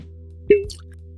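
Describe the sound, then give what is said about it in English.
A single hollow pop as a cork is pulled from a bottle of scotch, short, with a brief resonant ring, over a steady low background hum. “see if I can pop again.”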